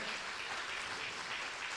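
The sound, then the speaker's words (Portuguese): Steady audience applause fills the whole stretch, a dense, even wash of many hands clapping at once, with no voices rising above it. “E você pode aplaudir se você começou, agora termina, né?”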